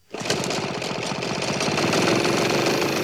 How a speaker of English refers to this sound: All right, there we go. The jetpack is going, and here I go.